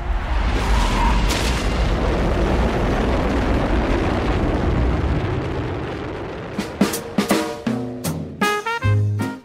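A loud, rumbling rocket explosion roars steadily for several seconds, then gives way to a series of choppy, tonal bursts near the end. No one speaks.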